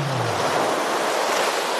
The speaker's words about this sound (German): Ich, hey, ich lasse das jetzt einfach mal, die, die Ozean lasse ich jetzt ausklingen.